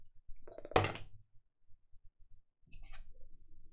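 A bottle cap, tossed in place of a coin for a heads-or-tails call, lands with one sharp clack that rings briefly, followed about two seconds later by a few faint, light clinks as it settles. No one speaks.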